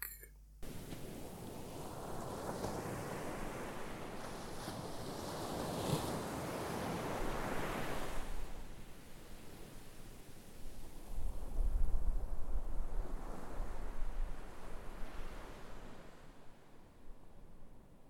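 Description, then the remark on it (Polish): A stormy sea: heavy waves surge and crash in broad, rolling swells, with gusty wind roaring over them and low rumbling buffets against the microphone; no voices. “Przed sztormem łódź naszych poławiaczy zdołała znaleźć schronienie u brzegów niewielkiej wyspy Antykritiry.”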